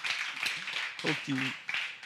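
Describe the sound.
A short burst of steady applause, a dense wash of clapping from a small crowd, with voices calling out over it partway through.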